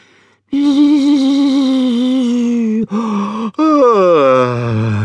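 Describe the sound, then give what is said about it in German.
A voice imitates a bumblebee's big, drawn-out yawn: a long, steady, slightly wavering vocal tone, a brief catch, then a second yawning sweep that slides downward and fades. Loud, no words. “So gähnt die Hummel.”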